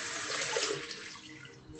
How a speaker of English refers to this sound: Sorry, I'm getting some water.